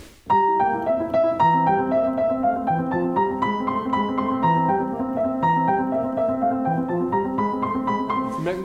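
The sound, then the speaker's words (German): A piano plays a bright, flowing classical melody, the third theme of the piece, with steady, lilting phrases, clear, continuing for several seconds with no voices over it. “Das dritte Thema, das klingt so.”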